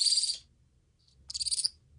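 Two grey-headed flying fox pups, about six weeks to two months old, give contact calls to their mother: two bursts of shrill, rapid, pulsing chitters, fairly loud, separated by a brief pause with a single faint chirp in between.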